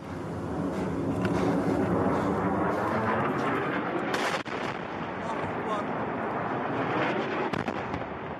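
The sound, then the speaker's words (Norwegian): A barrel bomb dropped from a helicopter in Syria, falling through the air before impact: a loud, sustained rushing roar almost like a fighter jet, punctuated by a few brief sharp cracks, continuing steadily without a pause. “Dette er lyden av en tønnebombe før den treffer.”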